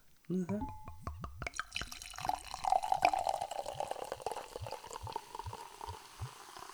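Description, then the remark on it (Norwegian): Liquid is poured steadily into a glass for several seconds, a bubbly, splashing gurgle whose pitch rises as the glass fills, then trails off into softer trickling. “Har du tenkt på glasset òg?”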